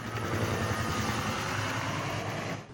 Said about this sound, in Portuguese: Do alto, o helicóptero deu apoio à ação.